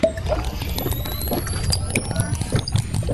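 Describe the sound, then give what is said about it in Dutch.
A Fortnite shield refill effect as the bar is refilled with slurp juice: a bubbly, gurgling liquid pour layered with rising shimmering tones and quick mechanical clicks, loud, running continuously for a few seconds. “Zo klinkt het als je je bar opnieuw aanvult met de slurp juice in Fortnite.”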